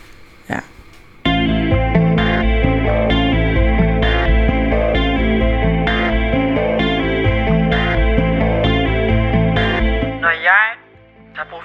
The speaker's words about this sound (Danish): så hører jeg altid det her nummer.